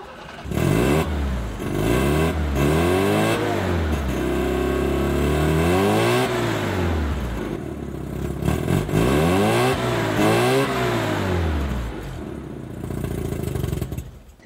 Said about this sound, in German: und wie so ein Mazda Cosmo klingt, das hören wir uns jetzt mal an. Es ist ein sehr eigenes Geräusch, ganz anders ist ein klassischer Hubkolbenmotor natürlich, typisch eben für den Wankelmotor und ich finde, man hört auch sofort die Drehfreude heraus.